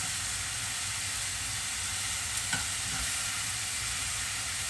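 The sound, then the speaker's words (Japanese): Steady, dense sizzle of sesame oil frying in a hot pan, with a couple of sharp pops and spits around the middle, continuous with no voices. “ごま油って普通の油より跳ねますよね”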